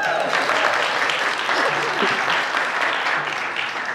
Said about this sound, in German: Okay, sehr cool. Ein Applaus